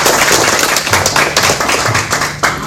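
audience applause

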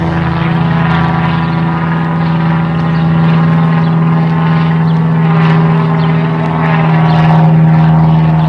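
airplane flying overhead

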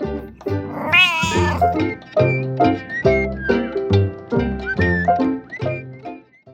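cat meowing

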